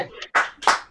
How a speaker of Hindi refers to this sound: पहले ताली बजाइए